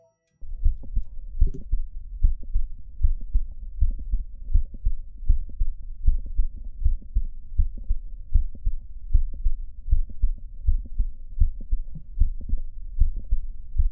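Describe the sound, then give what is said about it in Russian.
A heartbeat heard through a stethoscope, with a mid-systolic click between the heart sounds: steady, repeating low thumps over a faint continuous hum, with no voices. “Хотя в типичных случаях он локализуется в середине систолы, его можно встретить в любом месте между первым и вторым тоном.”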